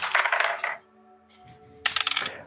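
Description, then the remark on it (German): Dice clatter and rattle across a hard surface in two bursts of quick, bright clicks, rolled for a stealth check in a tabletop role-playing game, fairly loud, with a short pause between them and no talking. “Auf was muss ich würfeln? Auch wieder Stealth? Bitte einen Stealth-Check.”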